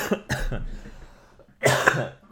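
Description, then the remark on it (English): A harsh coughing fit from a lingering flu: two quick hacking coughs, a brief pause with a raspy breath, then another loud burst of coughing. No speech. “I had the flu like two weeks ago and it is not going away.”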